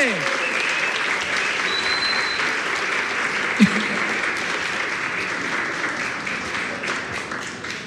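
Sustained audience applause welcoming two television producers, a married couple, fills the whole stretch, a dense steady crackle of many hands clapping at even loudness, with a brief whistle and a faint shout or two cutting through.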